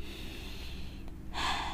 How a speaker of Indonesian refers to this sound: Kita tarik nafas dulu dalam-dalam.